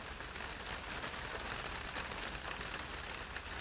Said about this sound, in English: I think I can hear hail.